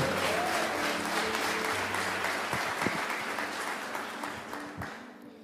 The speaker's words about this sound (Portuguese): Uma salva de palmas para a palavra de Deus em nome de Jesus. Mais forte, é para a palavra.